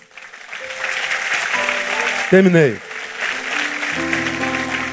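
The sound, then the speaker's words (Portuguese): An audience applauds in a steady, sustained wash of clapping for the whole clip, with a voice briefly speaking over it and held musical tones entering near the end. “Pode aplaudir.”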